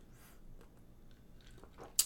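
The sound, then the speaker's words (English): A quiet sip from a drink: soft wet mouth sounds build over a couple of seconds, then end in a short swallow and a small sharp click. “Take another sip.”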